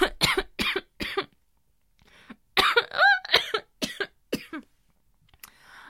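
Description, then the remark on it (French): A fit of harsh coughing after saliva goes down the wrong way: three sharp coughs, a brief pause, then a longer burst of spluttering, wheezy coughs and throat-clearing that trails off. “Ah mon dieu, j'ai ah, ma salive de travers.”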